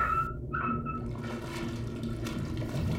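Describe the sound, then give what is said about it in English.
Steady sloshing water or waves, a dense continuous wash of liquid noise with a low rumble, even in level throughout, with no voices. “You hear that? Sounds like water or waves.”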